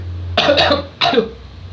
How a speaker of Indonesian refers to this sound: minum minum kopi kopi batuk aja lu air putih ambilin nggak nggak usah nggak usah